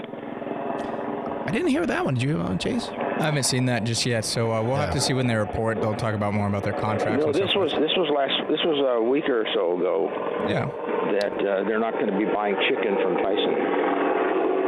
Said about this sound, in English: There's a helicopter in the background. Are you by Miramar?